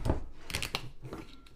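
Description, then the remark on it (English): A screw-top wine bottle is twisted open, the metal cap giving a quick series of sharp crackling snaps as the seal breaks, followed by fainter scraping. No one speaks. “All right, let's crack open this bottle.”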